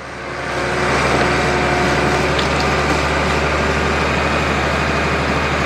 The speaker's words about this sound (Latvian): Lūk, arī buldozera efekts.